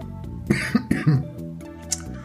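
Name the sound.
coughing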